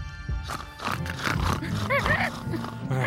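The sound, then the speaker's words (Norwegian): Repeated rough, low pig grunts come loud, several in quick succession, blending with a raspy voice and some background noise. “Så nå Grynt griser Grynt.”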